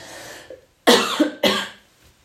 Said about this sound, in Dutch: wat zei ik net over hoesten?